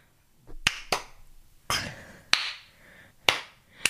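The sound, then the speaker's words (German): Six sharp hand claps at an uneven pace, some in quick pairs and others spaced apart, each a crisp, loud slap with a brief ringing tail, and no talking. “klatsch du mal normal.”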